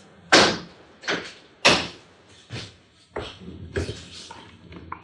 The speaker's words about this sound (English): Uh, let me close the window for yeah. just a second.